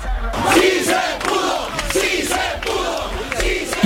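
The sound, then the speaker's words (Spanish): A large crowd of supporters and opponents shouts and chants together in the streets of Lima amid a heavy police presence, a dense continuous roar of many voices with rhythmic surges, loud and sustained throughout. “Partidarios y de Tractores se han juntado en las calles de Lima con fuerte presencia policial.”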